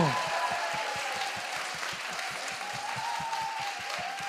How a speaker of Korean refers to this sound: 이 아무렇지도 않은 얘기에 이렇게 감동받으셔서 아. 큰 박수 쳐주시는 우리 꼴통 챌린저 여러분들 어서 오세요.